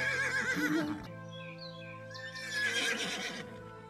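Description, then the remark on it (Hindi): A horse neighs loudly in two bursts, a long shrill whinny followed by a second quavering one after a brief pause, close and clear with no one talking. “और घोड़ा भी आजाद हो गया”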